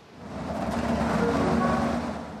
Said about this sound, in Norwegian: Tilbake på buss 74, som nå nærmer seg Oslo sentrum.